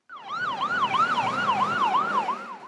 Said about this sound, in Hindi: रविवार रात कनाडा के नोवा स्कोशिया प्रांत में ये सायरन गूंजता रहा